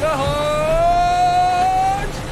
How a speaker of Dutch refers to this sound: Als iedereen zit en de riem vast heeft geklikt, komt de boot in beweging. Eerst moet hij nog een beetje op gang komen, maar dan.